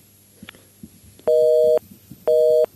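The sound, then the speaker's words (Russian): Two short, steady electronic tones from a telephone busy signal as callers fail to get through to a radio studio's phone line, each lasting about half a second with a gap between, heard clearly over a low, muffled background rumble. “Не получается у некоторых позвонить нам.”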